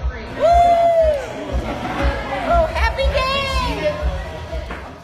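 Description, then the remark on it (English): A packed, lively crowd fills Sloppy Joe's Bar in Key West with loud, steady chatter as it reopens after 184 days closed for COVID-19, while a couple of excited cheers and whoops rise above the din. “The quintessential Keys Bar reopened Thursday after 184 days, and the crowds returned too.”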